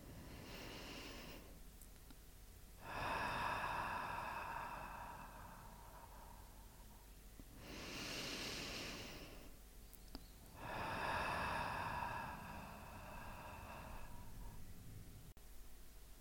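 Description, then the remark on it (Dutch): Slow, deep breaths in and out: about two full cycles of long, airy inhales and exhales separated by brief pauses, with no talking. “dan mag je je voorstellen, terwijl je nog een paar keer zo ademt, dat er een helder gouden licht schijnt in je hart.”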